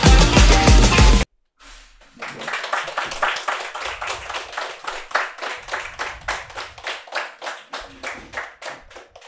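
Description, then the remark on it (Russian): After a brief loud burst and a short pause, an audience applauds with steady, rhythmic clapping that keeps an even beat for several seconds, fairly loud. “Слишком долго хлопали.”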